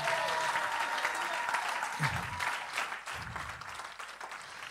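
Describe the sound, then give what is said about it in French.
A church audience applauds loudly and steadily to acclaim the Lord and thank the praise band, a dense wash of clapping with cheers and shouts rising through it, the crowd sound full throughout. “Je pense qu'on peut acclamer le Seigneur plus fort”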